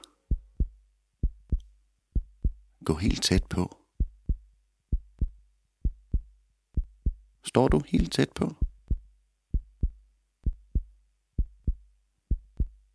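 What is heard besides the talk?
heartbeat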